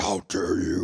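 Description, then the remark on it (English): A voice imitates a Swedish death-metal version of someone's voice, delivering a short phrase in a deep, guttural, growling style, split by a brief pause, loud with a rough, distorted texture. “the, Swedish death metal version”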